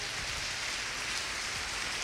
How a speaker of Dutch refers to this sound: Laten we de here een een applaus geven.